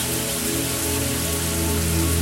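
A hot shower runs steadily in a bathroom filling with steam, a dense, hissing spray of water pattering without pause for the whole stretch, loud and even with no voices.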